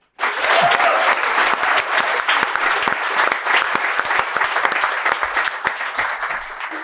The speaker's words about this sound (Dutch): Mag een heel hard applaus voor de eerste persoon die ons gaat roosten.